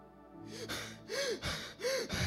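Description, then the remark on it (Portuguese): A person imitates breathless panting, as from running: a quick run of heavy, voiced gasping breaths, about three strong ones in steady rhythm, fairly loud, with no words. “Ficar ofegante, sem ar.”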